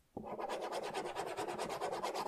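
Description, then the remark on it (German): A ballpoint pen scratches back and forth across paper, crossing out notes in quick, steady rasping strokes about eight per second, a bright papery scribble with no voices. “Ich habe hier noch ein Zettel von der Notizen von der vorherigen Podcast-Folge. Ich streiche einfach durch.”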